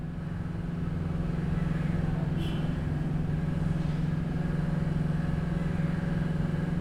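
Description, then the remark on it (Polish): Diesel generators in Dar es Salaam, Tanzania, run at full power during a power outage that has lasted several hours, a loud, continuous low engine rumble with a prominent humming tone and a faint higher whine on top, with no voices. “A ja tymczasem wracam do kolejnych nagrań w Tanzanii, gdzie niespodziewane zwroty akcji są na porządku dziennym, tak jak dzisiaj, gdy w Dar es Salaam od kilku godzin nie ma prądu i generatory spalinowe pracują pełną parą.”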